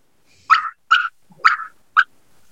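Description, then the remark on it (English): Four sharp, abrupt wild turkey hen putt notes, imitated on a turkey call, spaced about half a second apart. Loud, with no talking over them. “you would think that's a putt, but yeah.”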